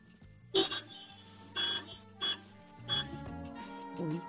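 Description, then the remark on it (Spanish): Four short car horn taps in a loose, uneven rhythm, heard over a mobile phone, each a brief tinny blare, followed by a softer trailing burst at the end. “Vamos a darle tres toques cortitos al coche, a ver cómo suena.”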